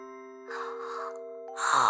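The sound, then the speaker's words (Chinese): A big, drawn-out yawn, breathy and moaning, stretching over about a second before ending in a louder rising burst, with steady sustained music tones underneath; it is the yawn of Dave in the story 'Dave's Breakfast Blew Away'. “戴夫打了一个大大的哈欠，”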